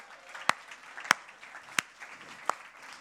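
Audience applause: a steady, diffuse wash of clapping, with four sharp, louder individual claps standing out at roughly even intervals across the three seconds.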